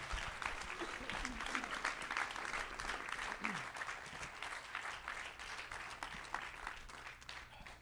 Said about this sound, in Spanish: Ahora sí, den un aplauso fuerte al Señor.